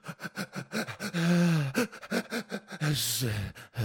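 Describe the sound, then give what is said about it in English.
A voice mimics a young daughter's gasping, hiccuping cry and scream: rapid sharp breaths, a drawn-out wail, more gasps and another wavering wail, loud, with no real words. “cry and scream. You know that one?”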